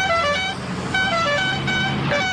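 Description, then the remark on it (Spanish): A car horn honks in a few short, bright blasts over the steady rumble of an idling engine, loud, as a woman arrives in her car to pick up her husband to go to dinner. “llega la esposa de Gabriel en su auto a buscarlo”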